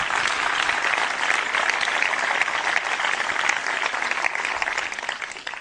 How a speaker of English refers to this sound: give a big warm round of applause for Mike and Linda